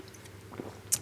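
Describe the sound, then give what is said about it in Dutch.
A quiet sip of water: a soft wet slurp midway, then a sharp little mouth click as the swallow ends, with no talking. “Sorry, ik eh, moet even een slokje water nemen.”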